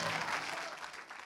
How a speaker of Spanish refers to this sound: Dele ese aplauso de alabanza al Señor.